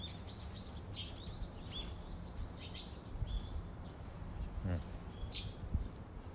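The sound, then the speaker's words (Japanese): Several birds chirp and tweet in short, scattered bursts over steady outdoor background noise, moderately quiet, with occasional low rumbles underneath; recorded outdoors around a house in the morning, at about 10°C, in late October. “結構鳥鳴いてますね うまく撮れてるといいんですけど、まあ、こんな感じであの朝はあの外の、ね、音を撮りながら収録っていうのもいいかなと思っております。”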